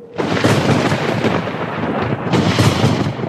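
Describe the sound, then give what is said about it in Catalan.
Loud thunder rolls in with a continuous heavy rumble that keeps surging for several seconds, dense and crackling, with no voices. “Quan pel març trona, l'ametlla és bona.”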